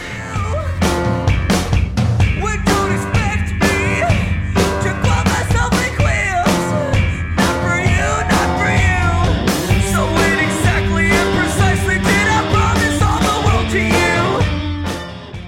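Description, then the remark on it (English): A harsh, dissonant cello scrapes and wails over a loud rock band with pounding drums, sustained and prominent for the whole stretch before cutting off near the end. “The the kind of ugly oddball use of the cello in this mm. really adds to the butcher murder sinister atmosphere”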